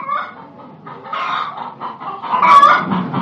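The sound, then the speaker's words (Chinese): Chickens clucking and squawking in a coop, a busy, agitated jumble of overlapping bird calls that grows louder and more frantic toward the end, with no talking. “谁知道第二天一早，天还没亮，主人就听见鸡笼子里乱成一锅粥了。”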